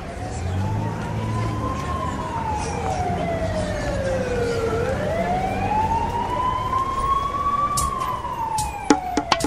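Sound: ambulance siren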